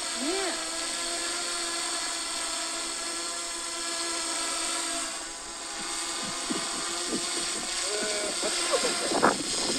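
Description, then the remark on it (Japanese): A drone's propellers buzz steadily with a high, whining hum that dips briefly midway, holding steady and loud, while faint voices break in near the end. “ドローンの飛行音を収録してみました”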